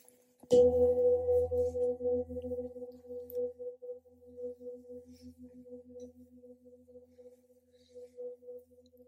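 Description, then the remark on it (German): A single gong stroke, the third gong, rings out, then a long, steady metallic hum slowly fades with a gentle pulsing waver over several seconds. No one speaks. “Und beim dritten Gong Rekun strecke ich mich liebevoll, öffne die Augenlider.”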